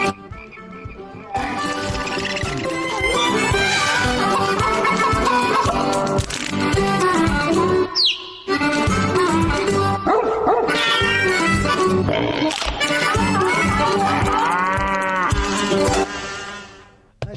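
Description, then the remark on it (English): The Creature Comforts theme: a bouncy cartoon-style theme tune packed with animal noises, barking and mooing woven through the music, playing loudly and continuously with one brief pause partway through. “Between the really neat little John Philip Sousa sound of the Wallace and Gromit theme and Shaun the Sheep, check out the Creature Comforts theme. This is great. It's adorable.”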